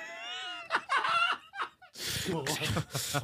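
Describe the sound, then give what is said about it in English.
A chair creaks under a person's weight in a few drawn-out, squeaky groans, then a burst of laughter and muffled talking takes over, loud. “This motherfucking chair is Atlas in Greek mythology right now.”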